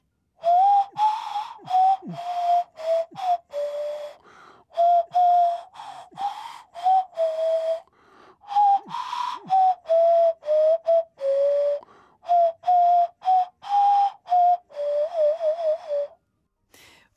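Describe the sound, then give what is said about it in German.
A nose flute plays a simple tune in short, breathy, whistle-like notes, phrase after phrase with brief pauses. It's fairly loud, with no voices. “Und von mir es eine Version für Nasenflöte.”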